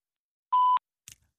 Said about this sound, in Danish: Alternativt så kan du lægge en besked efter tonen.